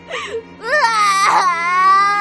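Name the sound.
crying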